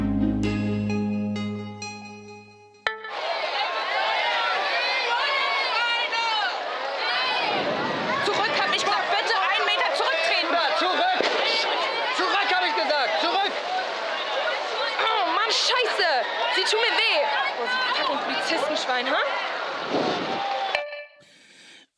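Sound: crowd commotion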